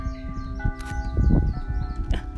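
A noon bell rings, its steady overlapping tones humming throughout, with small birds chirping high above and a few soft knocking thumps underneath; no one speaks.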